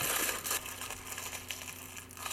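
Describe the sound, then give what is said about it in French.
A guard's metal sword being crushed and crumpled like paper in a man's clenched fingers: a dense, continuous crinkling and grinding crunch lasting about two seconds, steady, with no voices. “Il crispa les doigts. L'épée se froissa comme du papier entre ses phalanges.”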